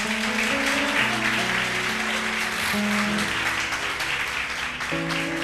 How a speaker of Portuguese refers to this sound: Você pode aplaudir Jesus para minha sogra, por favor?